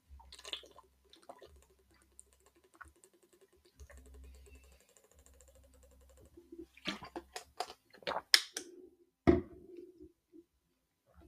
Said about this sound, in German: Und jetzt mit dem Wunder, mit wunderschönem ASMR, wie ich noch ein bisschen Wasser trinke, würde ich sagen, beenden wir die Folge.